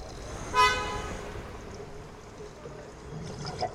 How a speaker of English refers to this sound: I feel suffocated by Yerevan that merges with the city where I grew up. I'm at the same time very far and too close to the car horns. Unable to concentrate.